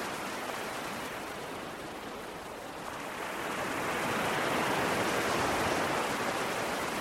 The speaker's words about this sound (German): Jetzt noch einmal schnell zum Ozean.